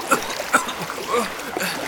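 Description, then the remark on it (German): Water splashes as someone wades through shallow water near an island beach toward Chico, a few uneven sloshing bursts over a steady watery background, with faint vocal sounds mixed in. “Ich kann versuchen, zu Chico durch das Wasser zu gehen.”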